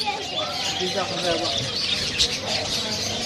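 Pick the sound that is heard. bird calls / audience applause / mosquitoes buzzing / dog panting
bird calls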